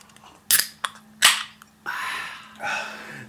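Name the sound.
drink can being opened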